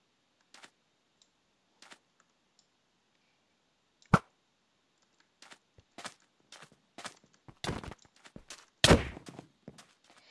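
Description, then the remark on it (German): A video game enchanted bow looses its single arrow with a sharp, sudden snap, surrounded by scattered soft clicks, thuds and rustling game effects, with a louder burst near the end and no talking. “Ich habe den Bogen verschossen, den einen einzigen Pfeil.”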